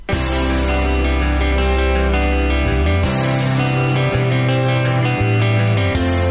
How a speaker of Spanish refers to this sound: Un medio tiempo de pegadiza melodía con una preciosista letra a cargo del líder del grupo